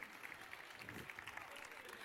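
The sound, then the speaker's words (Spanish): Steady clapping from a group of people, a dense patter of many hands with no breaks, moderately loud and sustained for the whole stretch. “A ver, aplausos.”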